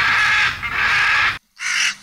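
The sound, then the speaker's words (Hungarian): A hooded crow gives three loud, harsh caws, the first two long and drawn out back to back, then a short pause before a briefer third call, over a low rumbling background. “Hallott, hogy kommunikálnak?”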